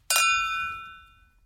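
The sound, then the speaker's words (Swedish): Champagne glasses clink together once in a toast during a champagne tasting, a bright ringing chime that lingers and slowly fades, with no talking over it. “Skål! Skål!”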